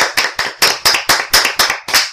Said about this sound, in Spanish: pues vamos a aplaudir al aire eh